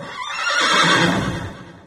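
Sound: horse neighing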